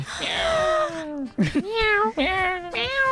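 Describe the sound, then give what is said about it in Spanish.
A person imitates a cat as a foley for the hosts' cat named Salem, with a string of drawn-out, wavering meows, about four in a row, fairly loud, each sliding in pitch with brief gaps between. “Sí, lo están haciendo porque están haciendo este, este, estos foleys, estos queridos colaboradores, porque nuestro gato”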